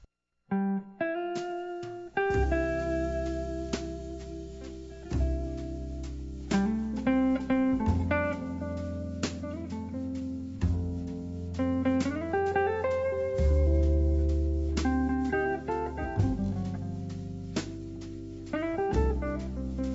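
A jazz song, the self-written title track of a singer-songwriter's sixth album, plays loud for the whole stretch: instrumental passages with sustained bass notes and shifting chords. No singing or talking is clearly heard.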